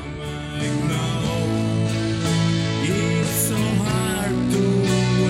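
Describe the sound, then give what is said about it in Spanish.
A clean electric bass line, played without an overdrive pedal and recorded in a single take, plays steady, undistorted notes within a full band mix, sustained and fairly loud, with no one talking over it. “que sucede es esto, que, para, que para, ponerle la distorsión al bajo, naturalmente lo que yo tenía que haber tenido era, era, este overdrive en, pedal, pues, y, pisarlo al momento de que yo quisiera.”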